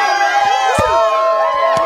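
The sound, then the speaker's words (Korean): A loud, steady wash of crowd cheering and applause, with high excited shouts and whoops rising over the dense clapping throughout. “아, 박수 참, 아, 참 부끄럽게 감사합니다.”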